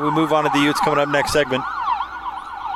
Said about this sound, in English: sorry about the siren there.